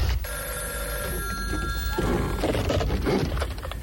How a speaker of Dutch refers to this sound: telefoon, pak even. Heb je nodig, telefoon.